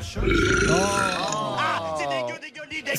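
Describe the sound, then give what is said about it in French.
A person voices a long, croaky burp imitating a cow, drawn out for about three seconds with a rising and falling pitch, fairly loud. “Eh ouais, elles font me les vaches, mais elles ne font pas que ça, elles font aussi.”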